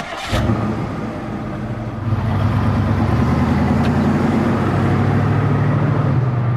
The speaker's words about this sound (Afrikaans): klim in haar rooi kar en vertrek na die strand toe.